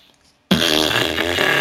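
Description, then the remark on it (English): A voice makes a sustained, buzzing raspberry imitating a fart, starting abruptly after a moment of quiet and holding loud for over a second. “Oh, see, well, I wouldn't be able to do that because because I I can't um, I can't do fart noises that well.”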